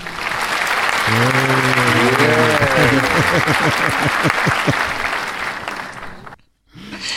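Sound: clapping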